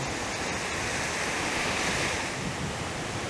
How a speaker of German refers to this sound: in diesem Moment sein. Dem Meer lauschen, dem Atem lauschen.